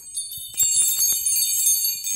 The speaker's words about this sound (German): darf ich noch mal klingeln? Ja, natürlich, unsere Adventsklingel.